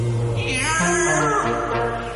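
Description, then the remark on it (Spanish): A cat meows loudly, one long wavering cry that stretches for about two seconds with shifting pitch. No one speaks over it. “Pero si a lo lejos se oye miau. miau en el acto dejan de pasear.”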